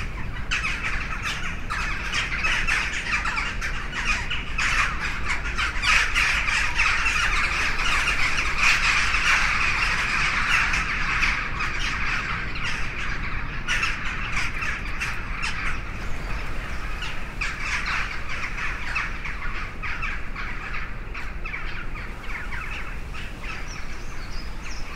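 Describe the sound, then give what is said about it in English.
A dense, continuous chorus of crows cawing and squawking, many birds calling over one another at steady loudness for the whole stretch, with no speech, as multiple flocks of crows fly overhead in East Vancouver. “We have here uh, crows.”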